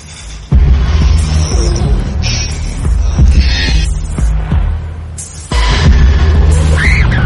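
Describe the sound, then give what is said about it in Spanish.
A loud, abrasive song from a film's opening title sequence: a heavy throbbing low drone with grinding hum, scraping bursts of distorted noise, and a sudden surge in intensity partway through. No voices. “Y la canción que estamos escuchando ahora es del icónico opening de la película.”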